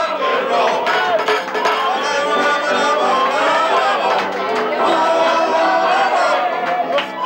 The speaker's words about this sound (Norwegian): Og her ble seieren feiret langt utover natta. Festglade nordmenn feiret med dans i gatene, norske flagg, jubelrop og applaus. Her på Karl Johan stanset all trafikk.